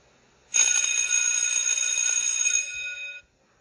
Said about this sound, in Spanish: Suena de nueva cuenta la campana, pero ya no con un tintineo, sino con un sonido ensordecedor.